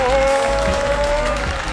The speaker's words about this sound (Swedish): Här har ni han. Ge en stor applåd för Sean